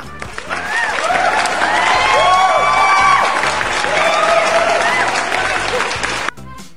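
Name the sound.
applause sound effect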